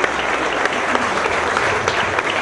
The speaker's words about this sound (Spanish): Eh, otro aplauso, por favor, porque estuvo muy divertida la plática.